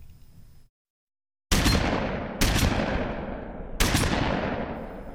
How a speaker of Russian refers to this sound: С тех пор в городе то и дело слышались выстрелы.